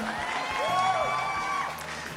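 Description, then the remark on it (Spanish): A crowd applauds and cheers, dense clapping mixed with shouting voices and a few whoops, steady and fairly loud for a couple of seconds. “¿Cómo no? Aplausos, señor.”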